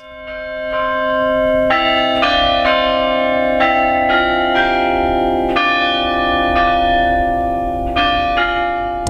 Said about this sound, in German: Der Hauptturm, der bringt es immerhin auf 89 Meter und neben der Größe macht gerade auch ihr Glockenspiel die Kirche weithin dominant.